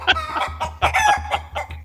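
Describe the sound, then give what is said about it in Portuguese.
Several live chickens cluck in quick, uneven bursts of short throaty calls, overlapping one another, over a steady low hum. No one speaks. “a taverneira já conhecia o Horus, então ela trouxe umas galinhas bem fresquinhas, ainda vivas, pra dar pro Robertinho comer.”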